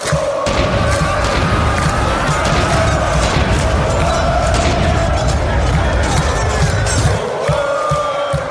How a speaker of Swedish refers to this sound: får vi höra klacken en gång till? Och jag vill höra kanonkul och jag vill höra lite mm, karoliner Galna protestantiska talibaner.